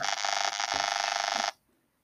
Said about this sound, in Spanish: Alguien, por favor, apaga su celular.